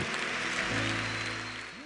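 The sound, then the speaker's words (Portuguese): A church audience claps for the Lord steadily and densely, a continuous wash of applause with sustained low musical tones running underneath, holding loud throughout before easing slightly at the end. “Aplauda ao Senhor com mais força que você puder.”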